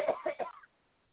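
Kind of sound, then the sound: human body sound, person coughing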